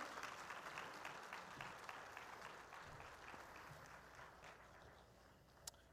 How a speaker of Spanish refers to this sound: Yo voy a pedir un fuerte aplauso a mis invitados en esta mañana. Ayúdenme a los invitados, vengan por acá. Vamos, vengan mis invitados. Fuerte, fuerte el aplauso al Señor.